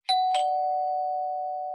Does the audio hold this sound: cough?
no